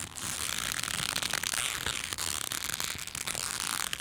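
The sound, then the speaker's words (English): Dense creaking of a good-quality genuine leather belt as it is flexed, a steady stream of crackles and small squeaks running continuously for several seconds with no voices. “It's making that it's it's it's because it's genuine leather.”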